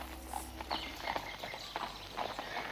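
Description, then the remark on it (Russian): A horse carrying two riders trots at an easy, unhurried, steady rhythm through a dense forest, each clip-clop distinct, with a faint background hum and no voices. “Лошадь легкой и находью трусила под сенью густого леса.”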